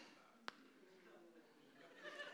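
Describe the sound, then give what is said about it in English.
An audience boos and hisses at moderate volume, a steady, jeering murmur of many voices lasting a couple of seconds, with a sharp click early on and rising boos toward the end. “Was there booing and hissing that I just heard there?”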